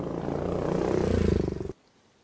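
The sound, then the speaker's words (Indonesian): A loud motorcycle engine revs up with a rising, rapidly pulsing drone for under two seconds, then cuts off abruptly into near silence, as the rider speeds off at night toward home in Tangerang. “Pak Bambang langsung tancap gas menuju rumahnya di Tangerang. Kali ini Pak Bambang menggunakan motor.”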